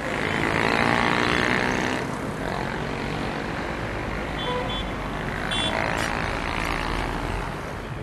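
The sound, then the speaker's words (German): Loud, steady street traffic noise on a fine-weather day: a continuous engine rumble with a droning hum, swelling a little in the first two seconds and then holding level, with no voices. “Äh, wahrscheinlich hört man hier die äh, Straße gerade ziemlich, äh, deswegen äh, ja, melde ich mich später nochmal.”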